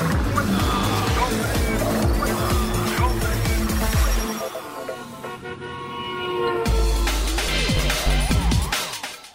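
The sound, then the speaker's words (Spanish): Loud, roaring racing car engines rev and scream, with tire squeals and a horn-like toot mixed into a dense, energetic burst of motorsport noise. “El programa donde rugen los motores.”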